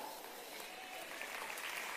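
Steady applause from an audience during a Spanish-language church sermon, given for the Lord, a dense, continuous wash of many hands clapping at an even level for about two seconds, with no voices standing out.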